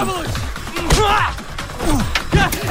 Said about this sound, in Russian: Череп бьет Ашоту кулаком по лицу.